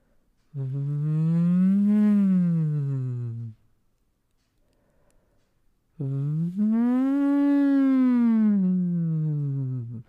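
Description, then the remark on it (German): Two long voice sirens phonated through a drinking straw in a comfortable pitch range, as a voice exercise like playing a recorder, each sliding slowly up in pitch and back down, separated by a brief silent pause. The tone is buzzy and steady, with no talking. “Wir flöten jetzt wie im Blockflötenensemble in den Strohhalm rein. Let's go. Machen kleine Sirenen.”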